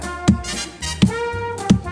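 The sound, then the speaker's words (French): Three solid knocks on a counter, evenly spaced about three-quarters of a second apart, fairly loud over a faint steady tonal background. “Il cogne sur le comptoir comme ça.”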